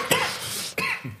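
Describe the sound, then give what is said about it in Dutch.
A harsh, raspy cough bursts out, followed by a second loud cough and a softer, shorter third. The hacks come in quick succession with no talking. “Gezondheid.”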